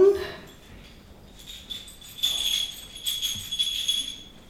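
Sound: small bells ringing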